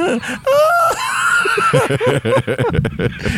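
A voice imitates the adorable high-pitched, wavering scream of the kid running toward Din Djarin, loud, for about a second, then breaks into breathy laughter and quick chatter.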